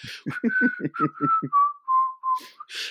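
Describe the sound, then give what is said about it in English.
A whistled melody, the collector's whistle from the Tales from the Crypt theme, heard at the end of Demon Knight: a clear, gliding tune that slowly descends, backed by a run of rhythmic low pulses in the first half. No one speaks. “Like you know, the, we get the iconic "Tales from the Crypt" song. You know, um, the collector's whistle in it, and it's just I can't.”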